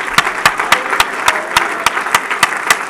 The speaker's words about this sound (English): Men, could we put our Bibles down and just clap unto the Lord? Worship Him. Thank you, God.